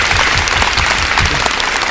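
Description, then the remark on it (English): An audience claps in a sustained, dense round of applause welcoming director Darcy Grant to the stage, many hands overlapping into a loud, steady crackle with no pauses. “So we welcome Darcy Grant, the director, to the stage now as well, and I have a, a round of applause.”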